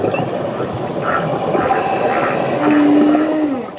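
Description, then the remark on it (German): A ship's low, steady engine rumble drones throughout, fairly loud and continuous, with a faint tonal hum rising out of it toward the end. No voices are heard. “Ähm, ihr hört schon, wir sind immer noch bei den Schiffen.”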